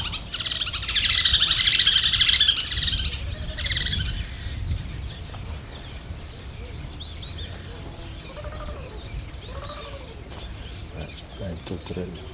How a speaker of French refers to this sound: C'est quoi Tourterelle